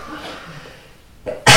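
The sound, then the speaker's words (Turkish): A sharp, loud sneeze bursts out near the end, preceded by a brief quick intake of breath after a stretch of quiet, low background murmur. “Çok yaşa.”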